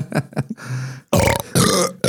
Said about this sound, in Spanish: Mira, fue doble eructo, güey. We've been blessed with a double burp. Doble, doble eructo, güey.